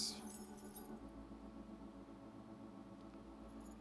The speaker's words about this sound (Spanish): La experiencia fue tan vívida que Meyer metió su mano en el bolsillo y sacó el llavero con un puñado de llaves